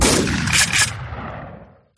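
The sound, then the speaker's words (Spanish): A burst of hunting gunshots cracks out in open country in the province of Valencia, Spain, their echoes rolling and fading over about two seconds, with no voices. “Estamos escuchando disparos de caza”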